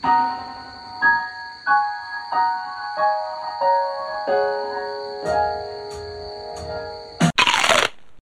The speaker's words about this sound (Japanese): 今、叩いた後に、ほら、音響がうわーってこう、リバーブの音なんだけども、逆さん、前後逆さになって出てくる。しかもこのピアノの音は鳴らずに、エフェクト音だけが鳴るみたいなのを合わせてそれを徐々に元のピアノの音に重ねるように。